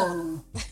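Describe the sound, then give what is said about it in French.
A single sneeze: a short voiced intake rising into a brief pause, then a sharp, breathy burst of air that quickly fades. “À tes souhaits. À tes souhaits.”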